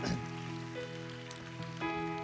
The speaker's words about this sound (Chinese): 拍手把荣耀归给神，哈利路亚。